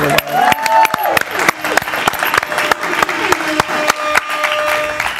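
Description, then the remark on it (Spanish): Steady audience applause, a dense patter of many hands clapping at once that holds at a fairly loud level throughout, with a few voices and cheers mixed into the crowd. “Un aplauso para eso.”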